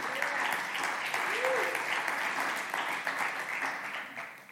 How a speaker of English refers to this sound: Go ahead and give the Lord a praise clap right there.